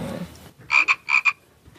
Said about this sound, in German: Cool, klingt ja echt wie ein Frosch.